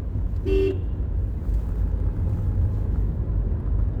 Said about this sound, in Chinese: 按下喇叭